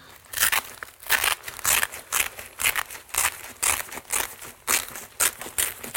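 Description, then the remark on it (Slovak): Velcro being pulled open on a classic high-altitude boot: a steady run of short, loud rasping rips, repeating in quick bursts for several seconds with no talking. “No, ono je tam suchý zips, tak to troška trvá na otvorenie, ale...”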